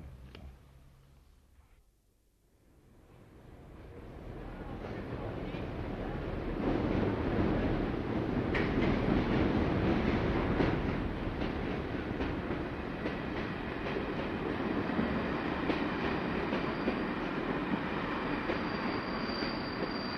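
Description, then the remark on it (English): The train from Sligo rumbles into the station in Mullingar, its heavy mechanical roar swelling from near silence to a loud, steady drone, with faint rattling of the carriages along the track. No one speaks. “day three, and uh, the train from Sligo has just pulled into the station in Mullingar.”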